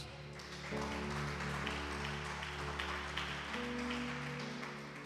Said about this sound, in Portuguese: E uma salva de palmas a Cristo Jesus.